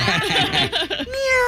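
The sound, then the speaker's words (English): A burst of laughter gives way to a single drawn-out, nasal meow as a person imitates a cat as a game buzzer sound, the voiced tone holding steady to the end. “I'm going to go with meow because I have a pet cat, Chester.”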